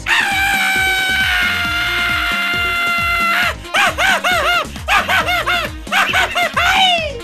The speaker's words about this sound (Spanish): échate un grito mexicano,